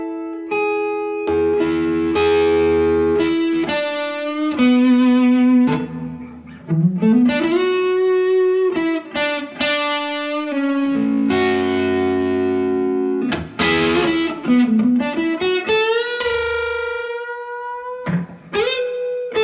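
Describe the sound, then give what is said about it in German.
A distorted electric guitar plays sustained notes and bends through an overdriven Marshall amplifier while its sound is being adjusted. It is continuous and loud for about twenty seconds, with a harmonically rich, slightly crunchy tone and brief pauses between phrases. “Und du spielst mal und ich versuche mit dem hier mal irgendwie so einen Sound für den Marshall einzustellen.”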